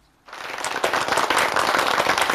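After a brief moment of silence, an audience breaks into applause for children who played music for over forty minutes, standing and walking in the cold winter, at a Christmas carolling performance: many hands clapping at once in a dense, steady, crackling wash that stays fairly loud until the end.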